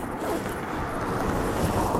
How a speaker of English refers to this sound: I'm going to zip up my jacket. Bear with me here. It's very cold.